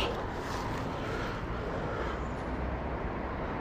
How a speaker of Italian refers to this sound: forse arriva il mio autobus